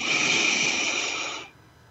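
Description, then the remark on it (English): A long, steady inhale drawn through the nose during a breathing exercise, airy, holding for about a second and a half before cutting off into near silence. “Let's breathe in through your nose again.”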